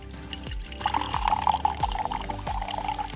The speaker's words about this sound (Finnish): Hei, otetaan tässä välissä nyt vähän lasin täytettä.